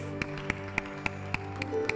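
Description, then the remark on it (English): An audience claps for a choir: steady, evenly spaced claps, about three or four per second, ring out in unison over a sustained, humming musical drone. The clapping sounds fairly soft. “Shall we give a clap offering to the choir, please?”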